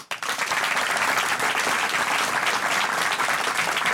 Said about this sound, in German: Dafür ein extra Applaus, das ist super.